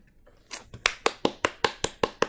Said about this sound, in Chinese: 只有我能鼓掌，就是因为一个是写的，一个是读的，为你们两位鼓掌